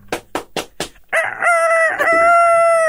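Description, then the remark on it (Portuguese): A carijó rooster crows loudly: four quick rough bursts, then a long, strained, drawn-out crow that breaks briefly midway before carrying on to the end. No one speaks. “É, isso é galo, isso é galo, isso é galo carijó pós-Covid.”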